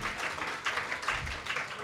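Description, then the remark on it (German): An audience applauds for the person running the event's tech, with steady, dense clapping that holds a fairly even level from start to finish, many hands blending into a continuous crackling wash. “mal einen Applaus Leute. für Anne, die ja die Technik wuppt.”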